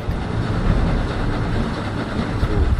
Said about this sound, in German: Alle paar Minuten fährt die U-Bahn über ihre Köpfe hinweg.